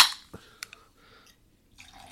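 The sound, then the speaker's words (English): A drink from a fresh can is poured into a glass as a refill: a short fizzy rush, then a few light clinks and drips, and a soft trickle at the end. Fairly quiet, with no talking. “Yeah, I'm just about to refill. Here's a fresh can.”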